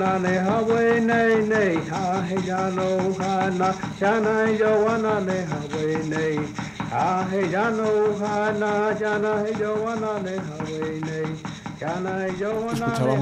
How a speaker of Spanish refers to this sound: una canción de Peyote recogida por Charlton Williams de nuevo para Smithsonian en el año 1979. La música de Peyote tiene una tradición de varios siglos